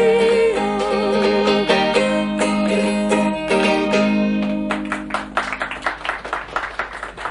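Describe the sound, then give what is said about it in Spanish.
A sung song with instruments holds its final notes, then a small audience breaks into scattered, uneven applause, individual claps clearly distinguishable for the last couple of seconds. “Yo creo que habría 15 personas en ese lugar por los aplausos que se escuchan.”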